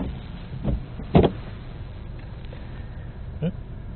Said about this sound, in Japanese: 雨降ってますのでちょっとワイパーの音がねガッツンガッツンとこううるさいかと思うんですがご容赦ください